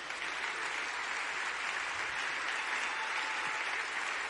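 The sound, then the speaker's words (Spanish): An audience applauds the Lord steadily, a dense, continuous wash of clapping from many hands that holds at an even, moderate level throughout without any voices rising above it. “Dele un aplauso al Señor, pues.”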